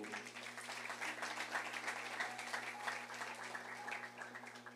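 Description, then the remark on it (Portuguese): A church audience bursts into sustained applause to the Lord, many hands clapping densely and steadily for several seconds, with a low hum underneath and no speech over it. “Diga, eu recebo e dê um aplauso ao Senhor.”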